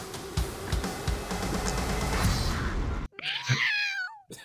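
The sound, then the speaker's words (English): A dense wash of loud, busy noise fills the first three seconds, then cuts out abruptly, and a single drawn-out cat meow follows alone, clear, its pitch bending upward then falling. “I don't know that cat always comes in at the end.”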